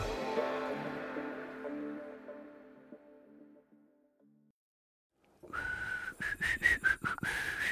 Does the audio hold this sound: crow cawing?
no